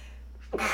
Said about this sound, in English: Sorry, I'm going to sneeze. Bless you. Thank you.